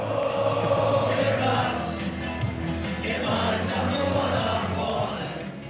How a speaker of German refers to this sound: Die Fußballfans singen im Chor. Mit grün-weißen Schals und Shirts stehen sie im Block 2, 4 und 12.